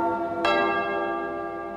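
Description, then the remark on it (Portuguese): A church bell, rung by the sacristan, clangs loudly, one fresh clang landing over the still-humming tones of an earlier stroke, its rich metallic resonance sustaining and slowly fading with no voices present. “Toca o sino, sacristão.”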